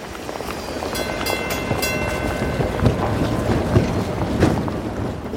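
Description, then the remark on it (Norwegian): A boat bound for Kristiania in 1916 chugs steadily across the water, its engine rumbling under a constant wash of splashing and rushing water, with occasional louder sloshes and no voices. “Så i 1916 pakket han sakene sine og satte seg på båten til Kristiania.”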